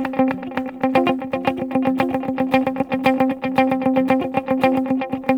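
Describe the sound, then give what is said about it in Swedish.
A clean electric guitar pattern smeared into a fast, cascading stream of dotted-eighth delay repeats, the echoes interlocking into a steady shimmering pulse, played alone at an even, fairly loud level. “Nu har jag bara dotted aids.”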